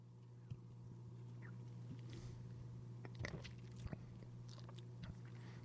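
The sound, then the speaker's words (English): Sips of Polar Black Heart seltzer, tried for the first time: a few soft slurps and sharp little clicks, spaced out over a steady low electrical hum, with no one talking. “One more sip and then more music on WPRB. Trying Polar Black Heart Seltzer for the first time.”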